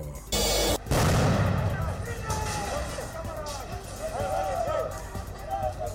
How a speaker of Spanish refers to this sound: Normalistas de Ayotzinapa lanzan petardos al campo militar 1 en Ciudad de México.